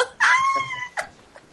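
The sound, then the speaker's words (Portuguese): A voice imitates a turkey gobble: one loud, drawn-out warbling call, then two quick, fainter clucking bursts, with no other talk. “que vi um peru.”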